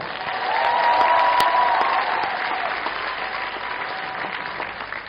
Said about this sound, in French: Comme vous avez pu le voir, un jury prestigieux est rentré en même temps sur la scène. Je vous propose de les applaudir.